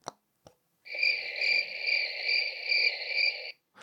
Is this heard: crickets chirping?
yes